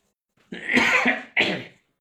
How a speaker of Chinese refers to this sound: 嗓子有点哑啊，所以有点想咳嗽。